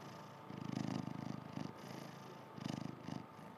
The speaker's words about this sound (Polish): Tutaj tak, ja tutaj pod, podkładam kota, żeby był, wiesz, odpowiedni dźwięk. Kocie, proszę zamrucz.